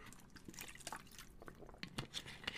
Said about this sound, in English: let me take a hit of my water, by the way, right?